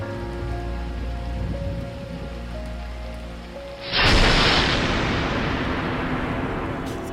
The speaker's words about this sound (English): And when the thunderstorm came and the lightning struck, he was shocked into thinking, what am I going to do before God?